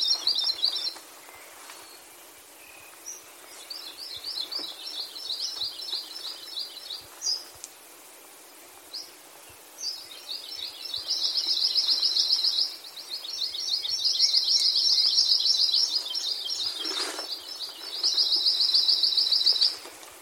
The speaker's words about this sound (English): Before I close out this episode, I just want to share with you the songs of a few of these endangered birds.